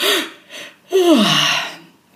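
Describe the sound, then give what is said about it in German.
An audible yawn: a couple of quick breaths drawn in, then a long, breathy exhale with a voiced tone sliding downward before fading out. No one speaks. “Und wenn ich darüber rede, dann muss ich immer sofort gähnen.”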